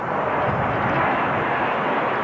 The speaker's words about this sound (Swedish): Här störtar JAS 39 Gripen inför Aktuellts kamera.